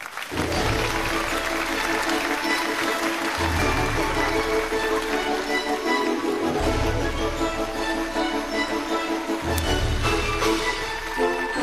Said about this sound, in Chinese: 掌声有请我们的开讲嘉宾。俞敏洪